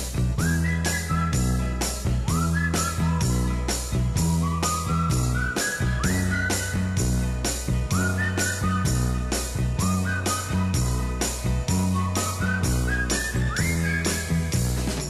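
An upbeat pop instrumental with a bright whistled melody sliding up to high notes over a steady, bouncy beat, bass and brisk percussion, playing loud and continuous with no voices.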